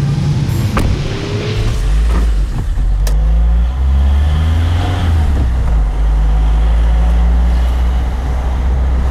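A car engine drones steadily while driving, low and loud, its pitch rising and falling as it shifts through gears, with occasional clicks and rattles over the hum.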